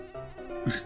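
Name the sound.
mosquito buzzing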